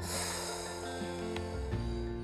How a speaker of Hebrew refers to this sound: לפני שאנחנו מגדירים משהו, בואו ננשום שלוש נשימות עמוקות. לנשום שמחה ולנשוף החוצה